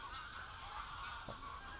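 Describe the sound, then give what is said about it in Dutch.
A large flock of dozens of ducks or swans calling together, a dense overlapping chorus of honking cries at steady loudness, heard alone without voices. “wat zijn het? Eenden? Zwanen? Wauw. Tientallen, tientallen, tientallen.”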